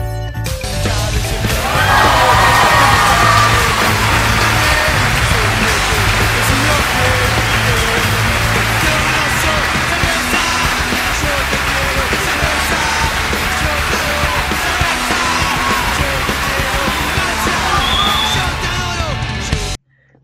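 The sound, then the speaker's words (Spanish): Loud, sustained audience applause and cheering welcoming four guests on the Late Show in Bahía Blanca. It swells in and holds steady for about twenty seconds, a dense wash of clapping with scattered shouts, then stops abruptly. “Por favor, quiero que den un fuerte aplauso de recibimiento a estos cuatro personajes.”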